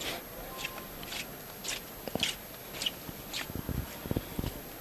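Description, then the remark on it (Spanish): Footsteps crunch steadily across the wax-covered paving stones of a clean town square, the fallen wax giving a regular rhythm of gritty, sticky crackles with faint scraping, moderately quiet and with no voices over them. “El enlosado de la plaza limpísimo, lógicamente, con todo lo que eh, le ha, caído y por eso suena la cera así, eh, como suena, con, ese, con esa claridad.”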